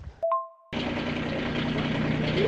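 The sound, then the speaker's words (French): A short two-tone beep, then a tractor engine starts up in the countryside and runs steadily, a loud, rumbling drone with a rattling mechanical texture that keeps going to the end. “Le bruit du tracteur.”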